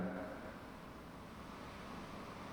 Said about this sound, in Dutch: nu weer de zee. Waar luisteren we naar?